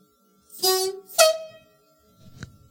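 A train cab horn (whistle) that sounds in different pitches blows two short, loud blasts in quick succession, the second at a higher pitch than the first, followed by a brief faint clatter.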